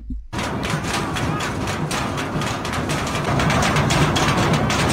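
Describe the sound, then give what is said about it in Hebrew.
Hundreds or thousands of protesters bang on the doors of the Lebanese parliament, a steady run of dull, rapid thuds and metallic knocks that blend into a loud, continuous roar of crowd noise from start to finish. “דלתות הפר... הפרלמנט הלבנוני, המפגינים דופקים עליהם בניסיון להראות שהם מוחים באמת על המצב.”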